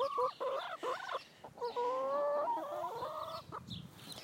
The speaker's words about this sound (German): Ich werde diesmal sicher mal keine Musik unterlegen. Sonst hört ihr das Gegacker von meinen Hühnern nicht.